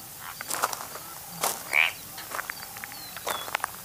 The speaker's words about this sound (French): Le marais environnant laissant échapper des cris de grillons et d'autres animaux dont Fiat préférait ignorer la nature.